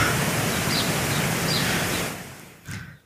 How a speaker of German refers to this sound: Ich, ich, ich drehe nochmal dieses äh, Rauschen auf und dann können wir jetzt hinterher, wenn ihr diesen Podcast hört, werdet ihr sehen, ähm, ob dieses Rauschen noch da ist.